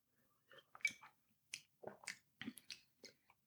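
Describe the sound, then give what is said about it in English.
A quiet run of wet throat and mouth noises after a sip of beer: about eight short gulping, clicking bursts in an irregular rhythm, with no talking. “My throat is agreeing with the, with the drink.”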